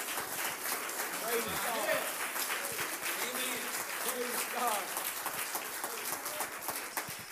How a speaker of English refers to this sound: Let's clap our hands. Can we do that to the Lord?